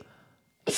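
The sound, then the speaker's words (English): A single sharp sneeze bursts out suddenly after a moment of near silence, loud, cutting off at the end. “Remember the old days when you used to like have like 10 rapid fire sneezes.”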